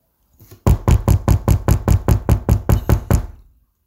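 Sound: repeated knocking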